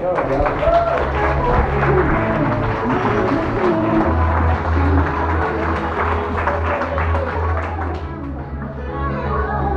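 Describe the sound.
An audience breaks into steady, dense applause that carries on for the full stretch at an even loudness, with crowd voices and a low sustained tone mixed underneath.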